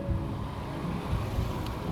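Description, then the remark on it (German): A steady, low engine rumble of a car on a residential play street, even in loudness throughout, with no voices. “Das mit den Autos ist echt ein Ding, da habe ich, da hab ich nicht drüber nachgedacht, dass wir hier kreuzen könnten.”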